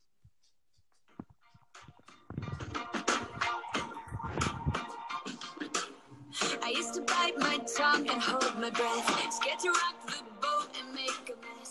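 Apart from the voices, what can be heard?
pop song playing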